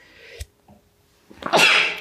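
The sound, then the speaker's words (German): A single loud sneeze erupts after a brief quiet moment, a sharp breathy burst that lingers for about half a second, preceded by a faint soft click. “Gesundheit.”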